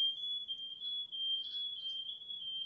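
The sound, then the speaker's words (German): A smoke alarm sounds as one continuous, piercing high-pitched tone that holds steady for the whole stretch, without breaks between beeps, over a faint low background rumble. No one speaks. “Was ist Feueraufmelder.”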